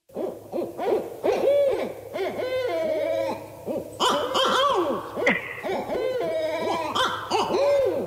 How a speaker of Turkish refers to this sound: Bak bir şey, bir şey söyleyeceğim. Başlangıçtaki kesinlikle baykuştu o arada bir tane yapan var ya o.